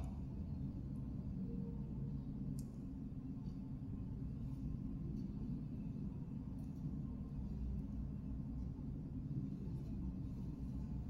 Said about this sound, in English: All right, here we go. Ten seconds of room sound starting now.